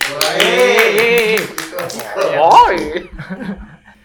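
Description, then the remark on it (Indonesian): A quick, loud run of hand claps applauding a good question, a dozen or so sharp strokes, rattles over laughing voices, then thins to a few scattered claps as talking picks up. “Tepuk tangan dong.”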